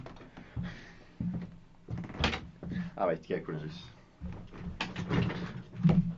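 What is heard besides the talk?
door being opened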